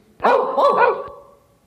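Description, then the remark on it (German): A dog lets out three quick, loud barks in close succession, the last one trailing off, with no one speaking over it. “Irgendwo bellt ein Hund.”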